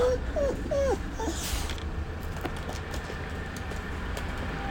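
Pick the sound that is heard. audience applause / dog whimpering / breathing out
dog whimpering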